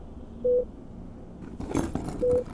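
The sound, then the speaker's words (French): A medical machine gives two short, steady electronic beeps about two seconds apart, with a brief rustling, clattering noise between them against a quiet background. “Bip, bip, bip fait la machine.”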